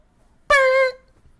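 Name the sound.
air horn sound effect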